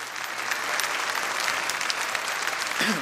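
An audience claps steadily for invited guests, a dense, even wash of many hands applauding without pause, with a brief murmur of voices near the end.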